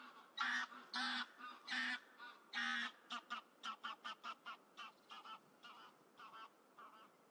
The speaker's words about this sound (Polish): Najczęściej spotykam dzikie gęsi. Do niedawna myślałam, że to zwykły pospolity ptak, nie sądziłam, że jest aż tak wielki i wydaje tak dziwne dźwięki. Ludzie nazywają ją pospolitą gęsią i często mówią, że ktoś jest głupi jak gęś